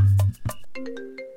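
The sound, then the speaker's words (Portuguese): A phone rings for an incoming call with an electronic ringtone melody: a few punchy low notes, then steady stepping tones that sustain clearly and fairly loudly, with no one speaking. “Vou desligar e tu liga, tá?”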